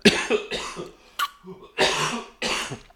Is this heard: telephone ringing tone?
no